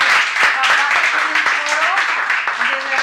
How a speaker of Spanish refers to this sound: Un aplauso para ella, por favor.